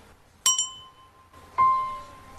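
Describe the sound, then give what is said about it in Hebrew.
A metal bell is struck twice, its metal vibrating 523 times per second to sound the note C (do), each hit ringing out a clear, sustained pitched note; the first rings briefly with bright overtones, the second hangs on and slowly fades. “טוב, אני רוצה לספר לכם שכשאני מכה בפעמון הזה, רגע, אני מכה בפעמון, הפעמון הזה עשוי ממתכת, והוא מקבל מכה אז הוא זז.”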